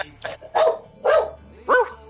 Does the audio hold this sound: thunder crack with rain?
no